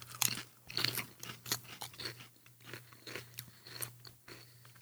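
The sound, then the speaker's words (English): Crunching and chewing of spicy barbecue potato chips, a rapid series of crisp, crackly bites with steady mastication, loud, no talking. “No, oh, it tastes like a barbecue chip with a, a spicy after.”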